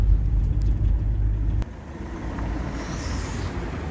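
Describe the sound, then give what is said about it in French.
Steady street traffic at 7 pm with cars on all sides rumbling past, a heavy low engine roar that drops off partway through, leaving a continuous wash of road noise. No one speaks. “Bon, il y a du bruit, il y a des voitures de tous les côtés, c'est le bordel.”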